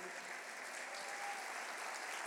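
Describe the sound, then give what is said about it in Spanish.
A crowd applauds for Jesus Christ with steady, dense clapping that holds at an even level throughout, a continuous bright wash of many hands with no voices standing out. “Alguien dele un aplauso.”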